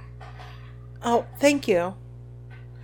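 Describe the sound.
An ice machine runs in the background, a steady low mechanical hum that continues unchanged beneath a short exchange of spoken words.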